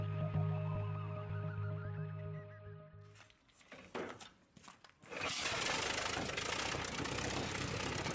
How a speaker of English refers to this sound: Tell Taylor and Roman to warm up the boats.